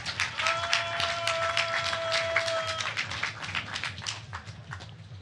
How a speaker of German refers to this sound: Nice Applaus bitte.